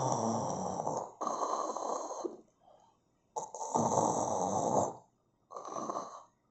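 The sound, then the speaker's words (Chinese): A voice imitates the pig character Zhu Bajie snoring asleep while hiding in the grass: four loud, rough, rasping snores in a slow rhythm, with a faint snuffle between the second and third, and short silences between breaths. “睡着了，哎呀，这一觉啊，一直睡到半夜才醒来，哎，真是的。”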